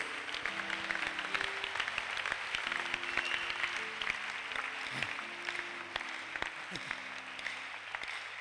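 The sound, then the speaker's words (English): Steady, dense applause from a crowd, many hands clapping at once in a continuous wash of sharp claps, with faint tonal notes underneath and no talking. “Your hand clap is disgraceful.”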